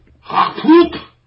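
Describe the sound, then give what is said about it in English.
A single sneeze, a sharp breathy burst with a brief voiced, tonal edge lasting about a second before fading into quiet. “Bless you.”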